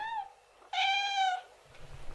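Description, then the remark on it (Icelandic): A cat meows twice, a short faint mew followed by a longer, louder drawn-out meow, with a low rumbling noise starting as the meow ends. “Já, já, já, bara um að gera og bara gott fyrir börnin að og gaman fyrir þau að sjá kísunar”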